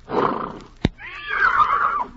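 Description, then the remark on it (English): Reginald, a wonder horse, lets out a loud whinny, a rising, quavering neigh that wavers high before trailing off, preceded by a snort and a sharp thump. “allow me to assure you that Reginald, my wonder horse, shares my admiration.”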